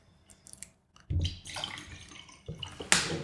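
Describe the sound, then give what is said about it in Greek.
Water pours in a splashing stream that starts abruptly, runs for about two seconds with a brief surge partway through, and ends with a bright splash. No one speaks. “Για φέρτε λίγο και από το νερό μετά.”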